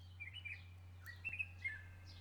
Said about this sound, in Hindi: धरती के इस हिस्से में इस समय सबसे तेज आवाजें चिड़ियों के चहचहाने की हैं